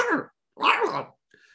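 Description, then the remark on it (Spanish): A voice imitates an alien barking and whimpering: two short, gruff, harmonic barks in quick succession, followed by a faint, thin whimpering whine, fairly loud. “Empezó El alien empezó a ladrar, gemirle.”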